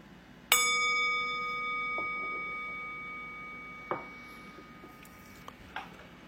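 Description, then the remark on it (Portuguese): A meditation bell is struck once to end a formal meditation period and rings out clearly, its bright shimmering tone slowly fading over several seconds while a few faint knocks and rustles sound in the quiet. “Então, o som do sino é mais um elemento da correnteza dos sons do mundo.”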